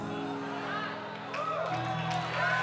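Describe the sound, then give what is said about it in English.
A church audience shouts and cheers together before the Lord, with overlapping calls and whoops rising into a steady, loud roar that swells toward the end. “Not, not like you shouting at a Tennessee game, but you're shouting before the Lord with a voice of triumph.”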